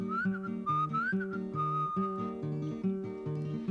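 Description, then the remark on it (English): Someone whistles a bird call as the bird's sound in a sung list of animal noises. It is a series of short, high, upward-sliding chirps repeated in a rhythmic phrase over a steady, strummed instrumental accompaniment. “and the pig went oink oink, and the rooster went roo, and the duck went quack quack, the dog went the cat went meow, and the bird went”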